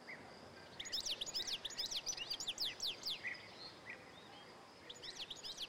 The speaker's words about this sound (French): Le chant que vous entendez là, c'est celui du chardonneret élégant. Un magnifique oiseau, sûrement le plus beau qu'on puisse voir dans nos jardins. Il est facilement reconnaissable avec son masque rouge, avec des ailes jaunes et noires.